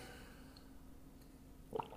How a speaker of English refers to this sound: I had to get a little bit of water here.